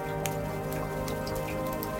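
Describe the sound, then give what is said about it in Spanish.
Steady rain falls continuously, with individual drops pattering and ticking on a surface over a constant wash of sound, even in loudness throughout. “Me esperó afuera aunque esa semana no dejó de llover.”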